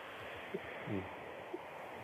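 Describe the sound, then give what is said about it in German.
An ICE high-speed train, the Intercity Solingen, rushing through a station without stopping, heard as a steady, broad roaring hiss that fills the whole moment, with a few faint brief tonal blips over the continuous rush. “Oh ne, hier fährt jetzt erstmal ein ICE durch.”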